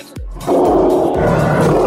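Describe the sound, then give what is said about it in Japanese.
A young lion, still a cub, roars loudly, a rough, sustained growl swelling in after a brief low rumble and holding steady to the end, with no voices. “その子供のまだライオンなんですけれども、はいはい、ただなんですねただはい余剰動物っていう言い方が業界の中ではあるんですけれども”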